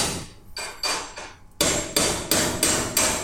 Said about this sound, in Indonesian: terus aja ketak ketak, katanya ada yang lagi betulin hmm. ban pesawat, ban pesawat. pesawat. jadi ini kita lagi di, di hanggar ah si bener hanggar pesawat